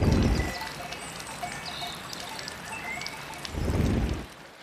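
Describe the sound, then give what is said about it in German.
Water pours and trickles steadily at a moderate level, with fuller, louder gushes at the start and again near the end. No one speaks. “Ich das richtiges Wasser? Ja, ich würde da gerne meinen Kopf reinstecken tatsächlich.”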